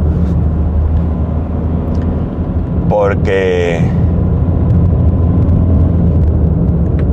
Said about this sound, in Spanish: Venga, pasa, señor camión. ¿no? Venga, estoy dejando pasar a los camioneros